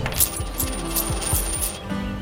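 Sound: coins dropping and clinking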